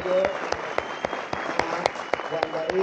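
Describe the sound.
A crowd applauds steadily, a dense wash of clapping with a few sharper claps popping out at a quick, regular pace, while voices murmur and call out beneath it.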